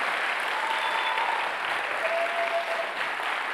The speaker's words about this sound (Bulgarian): Ръкопляска, ако вярваш, че имаш тази вяра. О, хайде, ръкопляска!